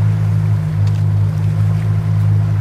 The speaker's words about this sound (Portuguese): Os marinheiros fazem descer a escada ao longo do casco do navio e os zodíacos os pequenos barcos de borracha são colocados na água para uma exploração da ilha monumental.